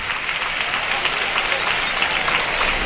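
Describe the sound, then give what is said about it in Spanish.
A large bullring crowd gives a strong, sustained ovation to the bullfighter Manzanares from Alicante as he withdraws from the bull: dense, continuous clapping that holds steady from start to finish, broad, with no pauses. “Fuerte ovación para Manzanares.”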